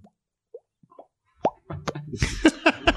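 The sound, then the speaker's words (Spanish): Someone makes wet mouth pops like a fish gulping: a few soft, spaced plops at first, then louder, quicker popping mixed with breathy, voiced mouth noises. “le hacía como te decía en el podcast pasado, así como pescadito, así.”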